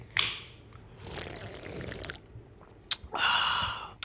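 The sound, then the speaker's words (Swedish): Plastic clicks and scraping as the lid of a Nord White Peach nicotine pouch tin, taken from the fridge, is worked open: a sharp snap, a second of rough rasping, another click, then a brighter scrape. No one speaks. “Då måste jag också öppna något ju. Eh, älskling, ta en Nord där från kylen.”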